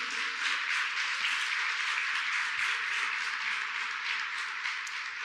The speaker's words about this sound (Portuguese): Você crê, aplauda Ele aí em nome de Jesus.